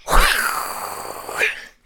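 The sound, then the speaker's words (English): A single voice imitates a really big explosion: a loud, breathy, sharp low burst that trails into a long rushing hiss for over a second, then cuts off. “How about how about an ex- a really big explosion?”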